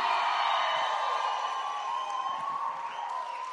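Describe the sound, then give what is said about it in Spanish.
A large audience lets out a loud, sustained shout of victory, many voices roaring together for several seconds with reverberation before slowly tapering off. “Pero el que tiene el reino de Dios que suelte un grito de victoria.”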